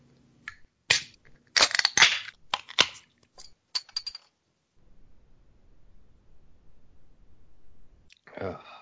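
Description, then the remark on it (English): Beer cans being cracked open, among them a Rivertown Brewing Amish Mafia strawberry rhubarb sour: a quick cluster of sharp metallic pops and crinkly clatter, then a stretch of low, quiet rumble before a brief voice at the end. “So Bro, let's crack our beers.”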